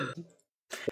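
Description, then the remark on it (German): Two harsh, sputtering coughs split by a short silence, the second burst rougher and more strained, from someone choking on beer. No speech accompanies them. “Den Triglavin verschluckt. Genau, das Bier.”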